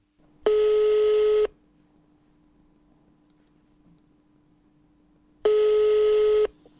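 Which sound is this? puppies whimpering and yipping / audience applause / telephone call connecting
telephone call connecting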